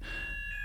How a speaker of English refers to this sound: but oh, that's a fire alarm going off. Excellent.